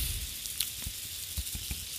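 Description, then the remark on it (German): A steady hiss of water spraying into flowers while watering them, with scattered soft pattering and splashing drops and one sharp brief tick near the end; no one speaks. “Also ein bisschen was wird halt platt, das lässt sich nicht ändern irgendwie muss ich hier rein in die Blumen. Geht nicht anders. Ich muss sie ja nass kriegen.”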